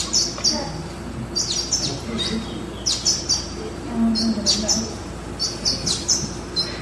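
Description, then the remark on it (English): Small birds chirp in quick, high bursts, repeating every second or so over a low, steady background murmur as a woman hand-feeds them peanuts she has chewed and spat out. Faint voices may be mixed into the ambience. “Are they tanagers? I'm not sure.”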